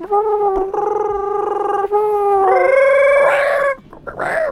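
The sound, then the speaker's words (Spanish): A person's voice imitates a dinosaur call: a loud, drawn-out, tonal wail that holds steady for several seconds, steps up in pitch, then breaks into a short rough growl at the end. “los imitamos nosotros. teniendo en cuenta que tenían un esófago de, y una traca de tal.”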